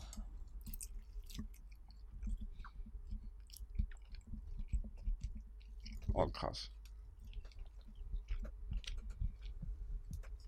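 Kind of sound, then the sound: food or drink, chewing food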